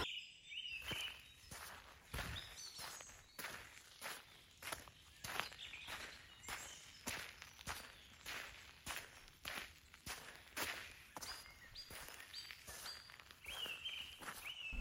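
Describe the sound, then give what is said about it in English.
Steady footsteps of someone walking away crunch through woodland ground in the evening at an even walking pace, about two steps a second, with faint birdsong and insects chirping in the background and no one talking. “You can't just kiss me like that and then walk away.”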